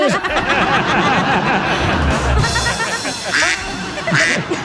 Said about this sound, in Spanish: Y el pato dice, cuá, cuá.